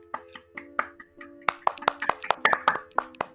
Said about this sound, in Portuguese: Podemos aqui aplaudir e depois explicar quem era o João, por favor.